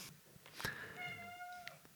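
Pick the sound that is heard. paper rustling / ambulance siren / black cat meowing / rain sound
black cat meowing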